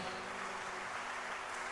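A crowd claps steadily, a dense wash of many hands filling the room at an even level, with no voices over it and a faint low hum underneath.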